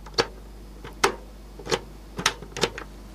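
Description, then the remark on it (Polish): A series of sharp plastic clicks from the power switch of a Sega Mega Drive console with a 32X add-on as it is switched on, about six snaps at uneven intervals with brief quiet gaps, no voices. “Zobaczcie, jak Sega Mega Drive 32 bit, czekaj, przyciszę muzykę, jaki jest dźwięk włączania.”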